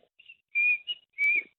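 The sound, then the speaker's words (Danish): A person whistles an imitation of a kingfisher call: a faint short note, then two long piercing high whistles with a brief chirp between, clear with no talking. “der hørte jeg så, ishulene, de sagde noget begge to”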